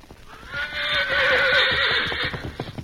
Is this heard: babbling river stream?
no